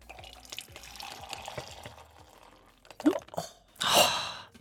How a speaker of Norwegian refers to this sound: Ja, men dagens første kaffekopp. Det er kaffen i koppen!